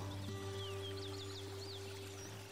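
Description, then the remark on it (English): Birds chirp in quick, repeated high notes, soft, over a steady low humming drone in the middle of a jungle, with no voices. “Allow your thoughts to float as the birds chirp.”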